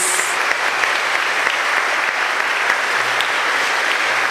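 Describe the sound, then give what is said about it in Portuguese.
Sustained applause from a church audience on the fourth Sunday of Easter, applauding the Gospel reading: a dense, steady wash of clapping that holds at an even level throughout without voices rising above it. “Vamos aplaudir a palavra de Deus, meus queridos.”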